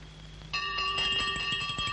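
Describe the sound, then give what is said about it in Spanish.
A small handbell, rung by a nun along a first-floor corridor, rings rapidly and continuously after a brief quiet start. Its bright metallic tones repeat in quick strikes, steady, with no voices. “Al día siguiente una monja toca una campanilla por el corredor de la primera planta.”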